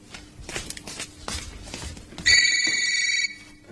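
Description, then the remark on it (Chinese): A mobile phone rings with a bright electronic tone lasting about a second, loud over a background of shuffling footsteps and scattered clatter. “我正在用我的手机给你打电话呢，我很安全，请您放心吧。”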